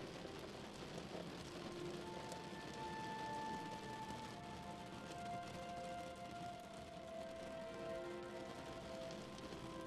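Steady rain patters continuously against a window at night, a dense, even hiss of drops with no pauses, and faint sustained tones drift quietly underneath.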